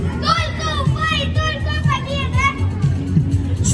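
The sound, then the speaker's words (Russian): A group of children yelling loudly into a microphone in a contest to shout as loudly as possible at an event before a football match, their high voices overlapping in a sustained shout with crowd noise underneath. “Ну, хорошо, а, нужно было крикнуть как можно Давай, громче в микрофон.”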